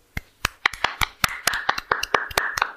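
One person claps hands in a quick run of about a dozen sharp, fairly loud claps, slightly uneven in rhythm, over a faint steady background tone. No one speaks.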